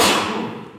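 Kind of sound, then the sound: human body sound, sneeze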